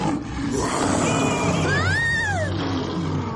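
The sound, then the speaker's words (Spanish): A lion roars loudly, one sustained, rumbling roar whose pitch swells upward and then sinks back down over about three seconds, with no voices around it. “¿Eso es todo lo que puedes rugir?”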